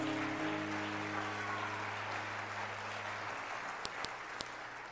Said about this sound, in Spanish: Vamos, darle fuerte palmas a Dios.